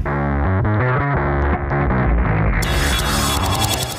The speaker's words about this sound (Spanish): quédate con nosotros con esa tremenda cortinilla de Concepto Primers